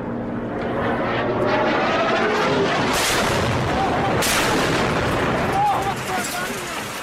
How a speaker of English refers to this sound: The sounds of the Syrian war. A helicopter circles overhead and a barrel bomb falls.